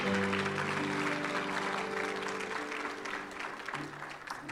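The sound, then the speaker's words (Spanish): An audience claps loudly and steadily for God in the morning, in a dense, sustained wash of applause, with sustained organ or keyboard tones ringing underneath before the clapping gradually thins out. “Dale un fuerte aplauso a nuestro Dios esta mañana.”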